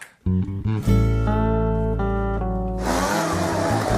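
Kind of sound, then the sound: machine, leaf blower running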